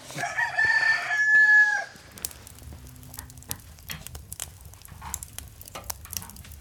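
A proud rooster lets out one loud, drawn-out crow, then falls quiet while many hens keep up scattered soft clucking and scratching in the background.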